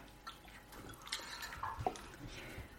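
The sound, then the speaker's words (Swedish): Spiced wheat beer with cinnamon, cardamom and clove trickles softly into a glass, a faint, steady liquid pour broken by a few small drips and light clinks near the middle, with no one speaking. “Kanelen kommer mer när man häller upp det.”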